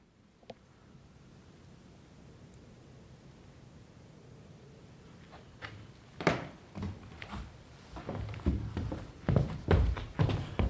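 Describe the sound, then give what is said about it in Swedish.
Footsteps cross an old wooden floor in the attic of Ekenäs Castle, starting after a quiet stretch with a few isolated knocks, then building into a series of irregular thuds and creaks over a soft background hiss. “Ja, gammalt, gammalt, gammalt mm. trägolv.”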